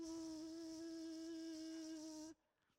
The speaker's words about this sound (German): Wenn ich dich allerdings frage, ist eine Mücke in deinem Zelt? Dann könntest du reingucken, dich umgucken und sagen, es ist keine Mücke drin, aber abends, wenn du in deinem Schlafsack liegst und das Licht aus ist, dann hörst du